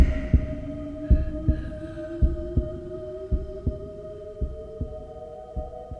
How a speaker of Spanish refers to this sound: Pero durante varios minutos el corazón siguió latiendo con un sonido ahogado. Claro que no me preocupaba, pues nadie podría escucharlo a través de las paredes.